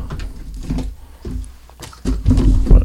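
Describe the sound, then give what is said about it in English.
Uneven thumps and bumps mixed with cardboard rustling as items are lifted and pulled out of a game box, growing louder and busier toward the end, with no talking. “you'll like this as I make thumping noises and pull this out.”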